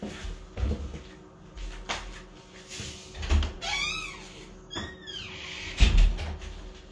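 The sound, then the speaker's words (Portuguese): A door creaks open on squeaky hinges, opened to let in a cat, with a couple of drawn-out squeals bracketed by solid clunks and knocks of handling. No one speaks. “Então aqui eu fui lá abrir a porta lá.”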